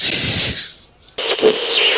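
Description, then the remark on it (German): Walkie-talkie static hisses loudly, cuts out to near silence for a moment, then bursts back with a harsh crackling rush between transmissions. “ich bin Martin. Ich bin mit dem Herrn Operatori auf der anderen Seite und äh, funke gerade, weil er das Funkgerät hält”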